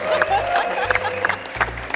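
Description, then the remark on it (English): A crowd at an event at Xero applauds the winning team, Team Forecasting, loudly and steadily, dense clapping filling the whole stretch, with shouts and cheers rising over it now and then. “And our winners, give Team Forecasting a round of applause.”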